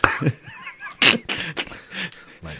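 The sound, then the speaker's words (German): A few sharp coughs burst out at irregular intervals, one loud hack followed by several shorter, breathy ones, with no talking in between. “Ja, wenn du hustest, dann wir, muss ich mich entschuldigen.”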